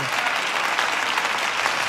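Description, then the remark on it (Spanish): Steady audience applause for the staff who serve behind the cameras, a dense wash of many hands clapping at an even, sustained loudness throughout, with no voices rising above it. “Están allá en lugares donde ni siquiera los escuchan, pero denles fuerte ese aplauso.”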